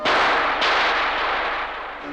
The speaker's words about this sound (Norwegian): Men en dag hører Eve og Elias et skudd.